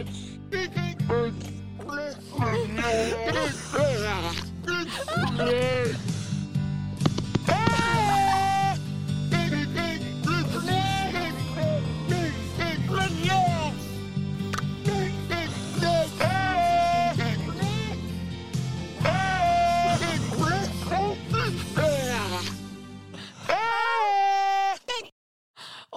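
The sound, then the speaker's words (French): A voice imitates a seal with wavering, bleating cries, repeated throughout over a steady low musical backing, loud and close, before cutting out near the end. “Ah, ouais, mais ça m'a vraiment fait permis de parfaire mon son de, mon son de phoque.”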